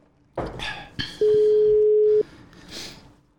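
A phone's ringing tone sounds once as a single loud, steady beep lasting about a second, framed by soft rustling and handling noises, as a radio show calls its traffic reporter.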